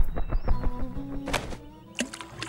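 A crow drops a small, hard pebble into a water bottle, giving two short, sharp plunks about half a second apart over a busy, murmuring background. There is no speech.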